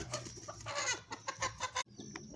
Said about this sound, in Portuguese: Agora passou a briga, o galo bateu na galinha, é violência doméstica, isso.